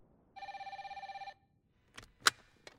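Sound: telephone ringing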